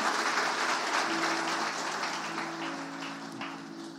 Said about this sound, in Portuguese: Dê um aplauso bem forte, pode assentar.